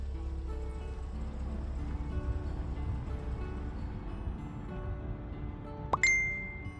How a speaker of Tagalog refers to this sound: Oh, may nag-chat sa cellphone mo.